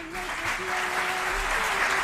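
A crowd applauds steadily, a dense, even patter of many hands clapping at once that holds at a constant loudness for about two seconds.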